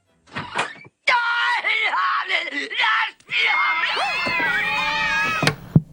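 Several cats yowl and screech loudly and continuously, their harsh, wavering cries overlapping in a chaotic chorus after a brief opening burst, with a short pause midway.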